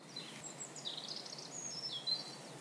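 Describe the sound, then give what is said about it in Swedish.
A European robin sings at midday in sunshine: a thin, high, wistful warbling phrase whose delicate trills rise and fall over soft background hiss. The song is quiet, with no voices. “Nu hör vi hur en eh, rödhake tränger igenom här eh, med en lite melankolisk ramsa, silverpålande.”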